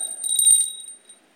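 A small handheld bell rings with a quick burst of bright, jingly strikes, then its clear metallic tone lingers and fades out over about a second, fairly loud, with no voices.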